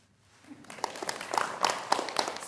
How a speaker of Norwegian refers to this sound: Spredt applaus i festsalen på Tøyen da Posten lanserte nye frimerker med Munchs bilder som motiv på onsdag.